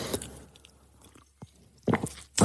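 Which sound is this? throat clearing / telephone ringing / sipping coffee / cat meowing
sipping coffee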